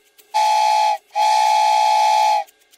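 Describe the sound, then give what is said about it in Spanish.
A person whistles like the birds, two long, steady, breathy notes at the same pitch, the first short and the second held longer, with a brief pause between and no talking. “Mmm, tampoco, porque silbaba, pero como los pájaros.”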